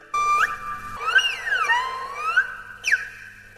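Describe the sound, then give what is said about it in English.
An erhu, the Chinese two-string fiddle, imitates birdsong with a high sustained note, then swooping up-and-down glides and quick chirping flicks, played alone and fairly loud without any talking. “It can duplicate the sounds of animals, such as birds”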